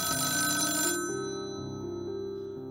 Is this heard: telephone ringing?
yes